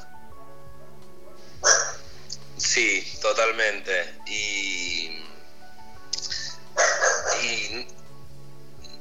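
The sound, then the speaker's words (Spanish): A dog barks in a few sharp, high-pitched bursts, then pauses and barks again moments later during a recorded conversation, while people talk quietly underneath. “no sé si quedan los ladridos del perro grabados.”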